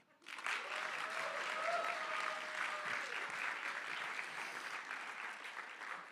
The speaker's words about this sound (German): Apropos zum Kapitel, sag mal deinen Nachbar, der Applaus war jetzt für die, für die beiden, gell? Ja, also eins, zwei, drei.